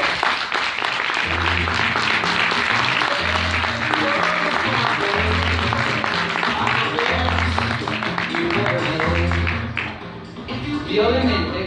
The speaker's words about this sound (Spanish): Dale un fuerte aplauso, por favor